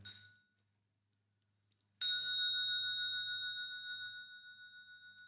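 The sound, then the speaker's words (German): A mindfulness bell, clamped in place, rings twice: a brief fading tail at the start, then after a pause a clear strike whose bright, steady tone sustains and slowly decays for several seconds. “Und dann habe ich halt meine, meine Glocke so irgendwie so eingeklemmt, so weil der, ja.”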